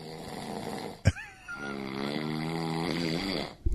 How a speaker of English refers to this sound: You're a little loud. I don't think I snore. No, come on. But I probably do.